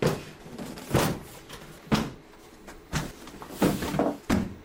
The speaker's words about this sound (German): Ja, da werden große Papierstapel, auf denen EU-Gesetzgebung steht, auf den Tisch geknallt.